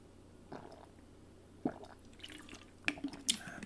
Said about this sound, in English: Hold on. Let me give me a little sip of this uh, beverage here.